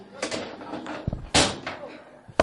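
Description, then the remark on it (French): A chair is dragged and knocked about as it is moved to its proper place, with a few sharp scrapes and thuds spread over a couple of seconds and faint voices in the background. “La chaise n'est pas une bonne place. Donc tu mets ça à la bonne place. Sinon tu vas cogner, tu vas tomber.”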